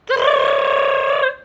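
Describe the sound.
A voice imitates a quiz buzzer during a quiz game, with a single loud, steady nasal tone held for just over a second, clear, then cut off abruptly.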